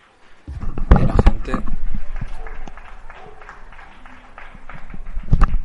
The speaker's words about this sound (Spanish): Todo el mundo aplaude. La verdad es que es, bonito este momento. Hoy no salgo, pero el resto de días sí que me, uno mis vecinos a aplaudir.